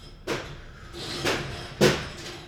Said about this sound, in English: And now the door's opening, even better.